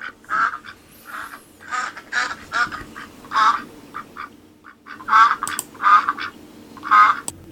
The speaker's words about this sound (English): Insert quacking up joke here.